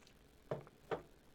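Two quick, soft sips of water, separated by a short pause, with near silence around them and no talking.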